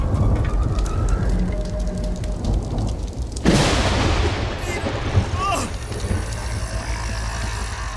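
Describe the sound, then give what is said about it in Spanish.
A sudden, sharp lightning strike cracks out a few seconds in, killing a snake, then rolls into a loud, crackling thunder rumble over a steady hiss like heavy rain. “¡El rayo la mató!”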